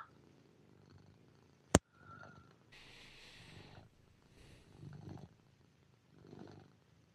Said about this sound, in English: I can hear the cat.